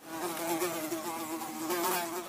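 A fly buzzes continuously, its drone wavering slightly in pitch as it hovers, with no voices present.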